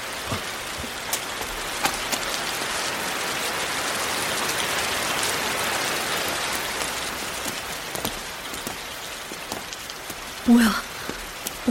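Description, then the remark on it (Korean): Steady rain at night, not a passing shower and showing no sign of stopping, pours down and patters on hard surfaces in a dense, continuous hiss, with scattered drips and taps; a brief louder thump near the end. “근데 소나기가 아닌가 봐요. 멈출 기미가 안 보이네.”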